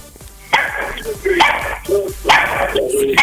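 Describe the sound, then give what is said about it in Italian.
A dog barks three times at roughly even intervals, each bark sharp and fairly loud, with a slightly whiny trailing edge and a faint murmur between. “No, era il cane che abbaiava.”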